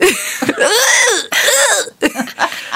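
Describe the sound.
A voice imitates small wheezing gasps: three or four strained, breathy, rasping bursts in quick succession, fairly loud, with brief catches of breath between them.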